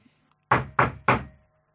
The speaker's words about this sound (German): Hm? Äh, was war das? Hat's geklopft? Habt ihr äh, noch ich jemanden eingeladen oder so? Ich dachte eigentlich, ich hätte unten äh, abgeschlossen.